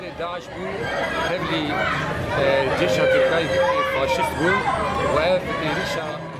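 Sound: crowd chatter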